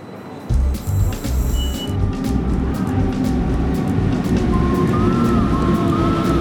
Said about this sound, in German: Ich glaube, das ist der Zug. Hast du gesehen, was drauf steht? Ich glaube, ges ges geschlossen. Also der Lokführer ist, glaube informiert, dass wir hier einsteigen.